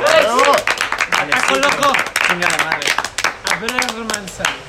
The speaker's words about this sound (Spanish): un gran aplauso para nuestro gran compañero.